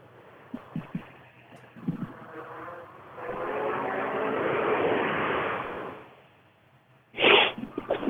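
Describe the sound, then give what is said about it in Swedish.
A rally car engine roars in fast on a forest rally stage, its revving growl rising over a few seconds to a loud pass, then cutting away, followed by a sharp burst of noise. “vi se vad det är för bil.”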